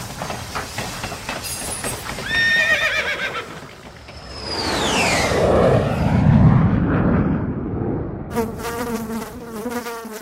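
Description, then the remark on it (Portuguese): A horse neighs in a loud, wavering whinny, with sharp clopping-like clicks early on, then sweeping whooshes, rumbling and a buzzing insect drone in a quick collage of studio sound effects standing in for a horse, train, airplane and fly, with no talking. “Por dedução, você sabe que aqui dentro do estúdio não tem cavalo, trem, avião, nem mosca.”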